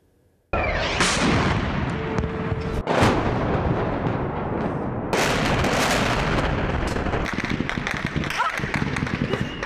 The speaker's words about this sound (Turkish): Şu anda kalabalığın üzerine ateş açılıyor.